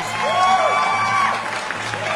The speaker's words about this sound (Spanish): ¡Ay, qué bonitos aplausos!